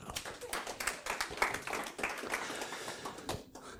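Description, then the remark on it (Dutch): An audience applauds, a dense, steady patter of many hands clapping at once for a few seconds, with a few sharper claps standing out before it begins to thin toward the end. “Geef dan maar applaus.”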